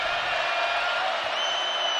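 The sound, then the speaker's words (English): The BYU Cougars crowd cheers loudly at a basketball game against the Gaels, a dense, steady roar that holds for the full two seconds, with a few thin, shrill whistle-like tones cutting through near the end. “The Cougs crowd loud.”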